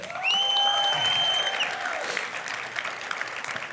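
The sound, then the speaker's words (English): Audience applause, a dense steady wash of clapping lasting a few seconds, with a high tonal whoop or whistle riding over it at the start before fading out. “And then there's this, which is more about family and a big, giant collective hug.”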